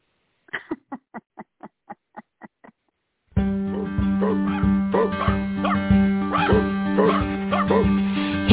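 A dog gives a quick, evenly spaced run of about eight sharp, fairly loud barks, then stops as loud, dense music suddenly starts.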